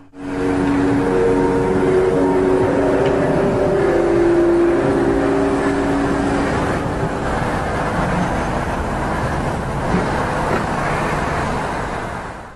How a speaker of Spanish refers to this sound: un círculo que se forma con luces y además se escucha un sonido de los llamados eh, The Hum, el zumbido, las trompetas del apocalipsis.